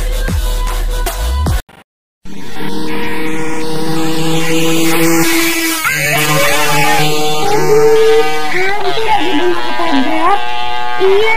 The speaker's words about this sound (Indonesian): bahaya banget sih mereka bercanda di motor. Iya, mana nggak pakai helm, kebut-kebutan.